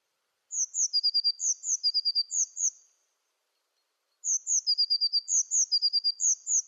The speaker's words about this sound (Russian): А вот так поет лазоревка.